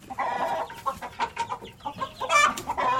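A black hen, entering at midnight, clucks in a steady string of short, throaty calls, fairly loud, rising into a busier, more agitated burst near the end.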